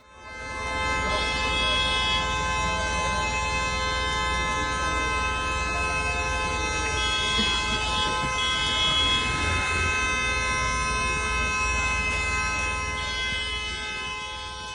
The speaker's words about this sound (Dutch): Ik heb echt nog nooit zo lang iemand horen toeteren, om eerlijk te zijn. Waar is dit? Ja, dit, is, eh, dit prachtige eh, openluchtconcert werd gehouden in de Damstraat. Dus oh. Dus vlakbij de, de Dam en eh, tussen de Dam en de Nieuwe Hoogstraat.